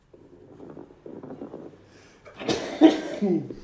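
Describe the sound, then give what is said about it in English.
A single loud sneeze bursts out with a sharp rush of breath, preceded by a couple of seconds of soft, low, rumbling breathing noise, a clip of coarse crackles. “that's not a coarse crackle, that's a sneeze.”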